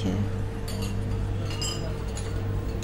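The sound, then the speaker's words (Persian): A few light metallic clinks and taps as a soda can is handled, scattered across a couple of seconds over a steady low background hum. “کاش میشد دنیا رو هم مثل قوطی نوشابه بذارم روی صورتم ببینم خونکه”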